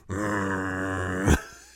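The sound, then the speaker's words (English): A person imitates Kirara, the cat sitting in a hot spring, with a steady, low, droning vocal tone held for about a second, ending in a short breathy burst that fades out. “Which is funny because like it's uh Kagome and uh Sango sitting there and Kirara's in the middle just like”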